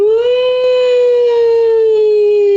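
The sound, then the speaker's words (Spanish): A voice imitates an ambulance siren with one loud, sustained wail that holds a high pitch and slowly drifts downward, with no other sounds. “¿cómo harían las ambulancias?”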